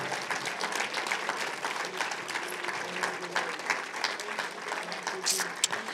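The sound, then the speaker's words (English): Sustained applause from a church audience giving the Lord a hand clap and praise, dense overlapping hand claps forming a steady, even wash of sound with occasional sharper claps, fairly loud throughout with no talking. “Give the Lord a hand clap and a praise for about 20 seconds.”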